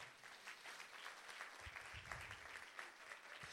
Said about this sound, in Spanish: Alguien le da un aplauso al Señor.